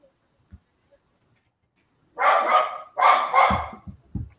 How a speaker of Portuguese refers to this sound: E aí um cachorro começou a latir.